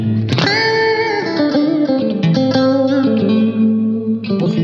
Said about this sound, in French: Alors c'est une reverb externe, hein, par contre, je pense, parce que je crois pas que qu'elle soit. C'est une reverb externe, oui, c'est une reverb externe.